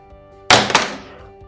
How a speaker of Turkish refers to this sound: Ee, bence sen bana bir şeye bozulmuşsun. Böyle ee, kalemi böyle atarak sinirini ondan çıkarıyorsun.